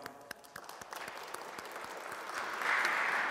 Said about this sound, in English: You know what his dad did? Can we applaud his dad first? Come on.